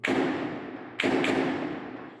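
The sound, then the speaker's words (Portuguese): Three heavy gunshot-like bangs, one at the start and then a quick pair about a second later, each ringing out in a long, rumbling echo, from explosions and gunfire during a gang's attack on a bank branch around three in the morning, recorded from an apartment near the bank. There is no talking. “Foi por volta de três da madrugada que começaram as explosões e os tiros.”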